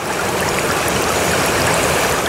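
Steady trickling and babbling water from melting snow, a continuous flow with no pauses and no voices, like meltwater running in a small stream.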